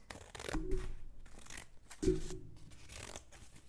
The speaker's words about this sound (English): What he found instead was the big bad wolf and its huge belly. He slid it open with a pair of scissors.